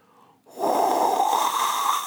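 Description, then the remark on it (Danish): Skydiving freefall wind noise from a video after jumping out: after a brief quiet moment, a loud, dense roar of rushing air builds over about 10 seconds toward terminal velocity and holds steady and overwhelming to the end, with no voices. “Op til den støj, der nogle gange giver på et fritvalg. Og fordi jeg har skudt lyden helt op, så bliver det jo helt overvældende.”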